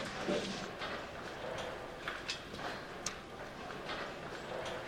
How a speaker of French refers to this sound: Alors là, eh ben, il y a six vaches de chaque côté qui sont rentrées.